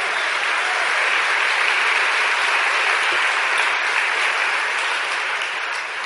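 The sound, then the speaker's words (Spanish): An audience applauds the Lord steadily for about six seconds, a dense, even wash of many hands clapping at a constant loud level with no voices rising above it. “Le damos otro aplauso fuerte al Señor.”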